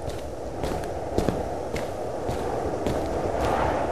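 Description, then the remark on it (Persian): Steady footsteps walk along a hard surface at an even pace toward a house door after a person gets out of a car, each step a soft thud over a constant low outdoor rumble, in cold weather, with no voices. “دکمه ریموت رو زد و رفت سمت در خونه”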